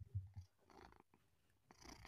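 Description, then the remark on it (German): A cat named Luna purrs, a soft low rumbling pulse that is strongest at the start, followed by faint rustling and handling noises. “Ja, und ich will schauen, ähm, ob man die Luna schnurren hört.”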